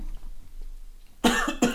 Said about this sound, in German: Sorry. da kam mir gleich ein Huster hoch.